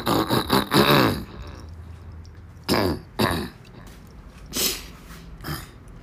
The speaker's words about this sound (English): Hold on, y'all. Let me clear my throat.